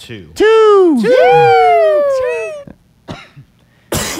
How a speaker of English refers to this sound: He's coughing.